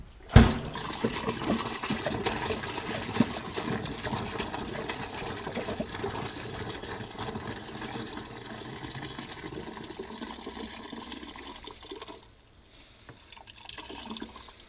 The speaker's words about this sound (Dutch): ik de porta potty in een diagonaal boven, de, eh, boven het gat uh, positioneer, dat ik dan precies op het randje van de uitstortbalk kan leunen met de porta potty en dan stort hij eh, rechtstreeks uit.